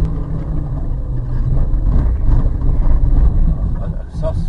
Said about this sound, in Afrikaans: Eind veldrywerk het ons beïndruk. Danksy die viertrekstelsel van die Nissan X-Trail, daai donkierad, kort oorhange en 'n goeie grondvryhoogte van aan die kant die 20 cm kraglewering van die 1.5 turbo diesel, hy lewer 80 kW en 240 Nm wringkrag